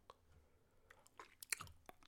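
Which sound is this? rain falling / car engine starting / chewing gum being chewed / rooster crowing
chewing gum being chewed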